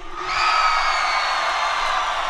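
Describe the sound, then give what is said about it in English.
A large concert crowd screams and whoops in a sustained, loud roar, with high-pitched shrieks riding over a dense wash of cheering that holds steady throughout. “Everybody just scream.”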